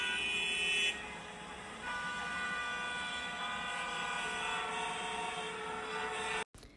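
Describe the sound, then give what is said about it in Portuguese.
Car horns blare in busy street traffic, long sustained honks layered over a steady rumble of engines, loud, shifting in pitch before cutting off abruptly near the end. “Sentia os passos das pessoas apressadas e também a buzina dos carros.”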